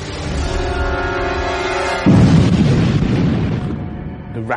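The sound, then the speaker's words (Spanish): A steady low droning hum gives way to a sudden, loud explosion of a torpedo inside a submarine, a violent gas explosion from hydrogen peroxide reacting in the tube, equal to nearly 200 kilograms of TNT, followed by a heavy roaring rumble that lingers and slowly fades near the end. “Es una violenta explosión de gas. Una explosión terrible.”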